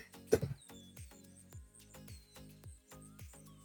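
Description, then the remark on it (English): A dog makes strange squeaky, whiny noises: one louder burst at the start, then a run of short, repeated wavering cries at a steady pace, with faint high chirps in the background. “What is that awful sound that dog is making?”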